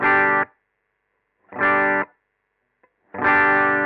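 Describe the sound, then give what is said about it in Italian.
Three strummed electric guitar chords, played clean with no overdrive, each ringing for about half a second and then cut off, with short silences between them and no voices. “Questo è il suono pulito senza overdrive.”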